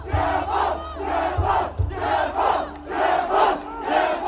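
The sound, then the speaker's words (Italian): A large street protest crowd in Urumqi, residents protesting against the authorities after a deadly building fire, shouts and chants together in loud, rhythmic surges, with a few low thuds underneath, the massed voices sustained throughout. “A Orunci le persone scendono per strada e non sono poche, sono quelle che state sentendo.”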